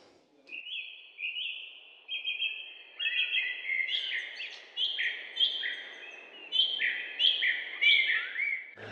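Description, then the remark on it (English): Birdsong recorded in Matson Park fills the whole stretch, with bright, whistled phrases rising and falling and overlapping in a steady outdoor chorus over a soft wash of background ambience. No one speaks. “there's also some bird song from Matson Park that uh, Kiran recorded”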